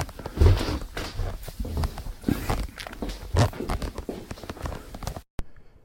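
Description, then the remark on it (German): Irregular footsteps shuffle and thud for several seconds, followed by a sharp knock as a door is pushed partly shut, then quiet. “Moment mal, ich mache mal die Tür ein bisschen zu.”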